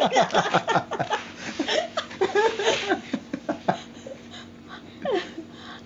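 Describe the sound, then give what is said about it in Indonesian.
A person imitates a pet rabbit's growl with short, rough vocal bursts, mixed with chuckling and laughter, fairly loud over about six seconds. “contohkan ke suaranya menggeram menggeram iya dia kayak lebih kayak menggeram gitu”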